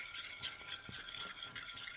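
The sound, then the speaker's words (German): Someone scrubbing a pot clean with an old toothbrush: a steady run of hissy, bristly scraping strokes with soft rhythmic pulses, fairly quiet overall and with no voices. “dann könntest du vielleicht einfach mal meinen Topf sauber machen”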